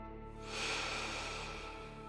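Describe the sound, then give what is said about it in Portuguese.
A slow, deep breath drawn in during a guided relaxation exercise, a soft airy hiss that swells and fades over about two seconds, with a faint steady musical drone underneath. “Respirando bem fundo”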